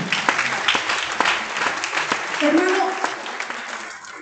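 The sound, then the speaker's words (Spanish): An audience applauds in praise of the Lord, a steady wash of many hands clapping at a loud, even level for several seconds, with a brief voice rising faintly partway through. “Yo quiero darle un aplauso al Señor.”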